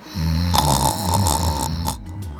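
A loud snore rumbles through a single long breath, low and buzzing with a rattling texture, then trails off into quiet.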